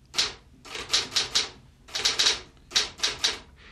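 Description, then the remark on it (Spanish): Typewriter keys clack in quick clusters of three or four sharp strikes, with brief pauses between bursts, fairly loud with no voices, as someone surrounded by books and papers types a program script. “Entonces, rodeada de libros y de papeles, se sienta la máquina de escribir.”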